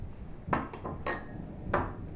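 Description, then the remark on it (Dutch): Dishes clink and clatter as they are washed in a kitchen of a house in Oosterhout during a thunderstorm, four sharp ringing knocks of crockery or glass spaced irregularly over a quiet, low background, moderately loud. “In de keuken doe ik alleen de afwas.”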